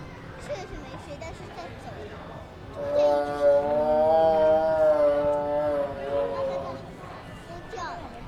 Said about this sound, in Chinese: 曾经和平公园动物岛里的狮吼。